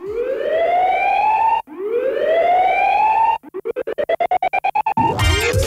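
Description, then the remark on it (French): Video game soundtrack music opens with loud, rising siren-like wails, twice, then breaks into a rapid chopped stutter of the same tone before a noisy burst; no one speaks. “C'est la BO d'un super jeu vidéo euh, Jet Set Radio et, de sa suite, Jet Set Radio Future”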